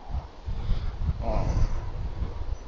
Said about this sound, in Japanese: あ、またね、音がすいませんね、これね、車の音が。うるさいですねすごい音しましたよね今ね本当にものすごい大きなトラックが今ね走り抜けていきましたけど